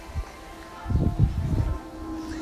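Wind rustling through tree leaves in a single gust lasting about a second, a low, buffeting rush against a faint steady hum, fairly quiet, with no one speaking.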